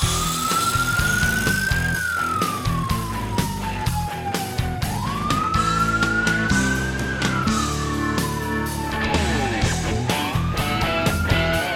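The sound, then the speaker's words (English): A loud siren wails in long, slow rising and falling sweeps, continuous, layered over a dense, pulsing backdrop of music throughout. “I like hearing those sirens.”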